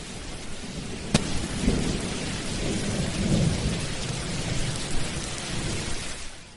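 Steady rain pours down while low thunder rumbles and rolls through the storm, with a sharp crack early on and swelling booms that fade back into the hiss of rainfall.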